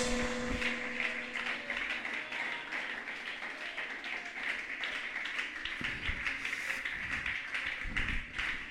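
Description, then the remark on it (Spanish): An audience applauds steadily for several seconds, a dense, even patter of many hands clapping at moderate loudness, with a few sharper individual claps standing out toward the end. “Un aplauso, un guerrero poderoso en Dios.”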